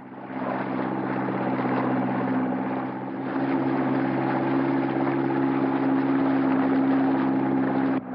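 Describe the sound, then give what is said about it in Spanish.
A boat engine drones steadily throughout as the boat travels along a canal between palm trees, past forests and farms, a loud low hum with strong harmonic bands and a slight dip in intensity partway through. No voices are heard. “Navegan por un canal entre palmeras.”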